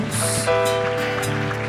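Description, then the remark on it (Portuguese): A church audience applauding the name of the Lord Jesus in a steady, dense wash of clapping, with sustained keyboard chords ringing underneath throughout the short stretch. “Aplauda o nome do Senhor Jesus.”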